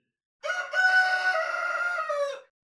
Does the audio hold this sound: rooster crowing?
yes